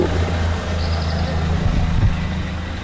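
A car engine rumbles steadily with a deep, low drone, swelling slightly as the vehicle goes past. There is no talking.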